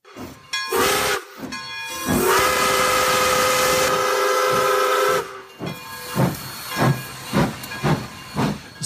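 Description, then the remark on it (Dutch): A steam locomotive lets out a short whistle toot, then a long sustained whistle over heavy steam hiss, followed by a run of rhythmic chuffing puffs as it pulls away, loud. “Vandaag is het landschap er rustig en stil, maar doorheen het gechilp van de vogeltjes, de zuchten van de wind en het ruisen van de rivier hoor je nog de echo van de trein die in vroegere jaren doorheen het landschap denderde.”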